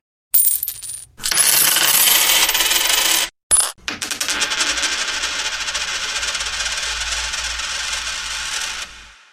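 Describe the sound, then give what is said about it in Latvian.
Euro cent coins spill and clatter in loud bursts: a brief rattle, a longer cascade, a short pause, then several seconds of continuous jingling as they pour out. No voices. “Minūtes laikā jums jānoskaidro, kādas eiro centu monētas zināt un kāda summa sanāk, ja kabatā ir no katras monētiņas pa vienai.”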